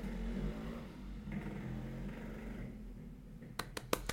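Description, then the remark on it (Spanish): A motorcycle engine rumbles low and steady outside, somewhat muffled, followed by a few sharp clicks near the end. “Hay gente que, que aprecien el sonido de la moto.”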